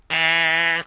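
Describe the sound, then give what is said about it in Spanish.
A person imitates the hoarse horn of a Vespino moped with a single steady, nasal, buzzy tone, held for under a second, fairly loud, with no other sounds around it. “Una especie de bocina afónica, sí señor.”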